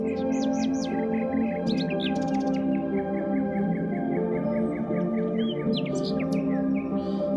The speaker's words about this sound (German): Die Nachtigall begleitet uns auf diesen letzten Schritten. Sie singt ihr Schlaflied nur für dich.